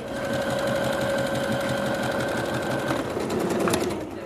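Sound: sewing machine running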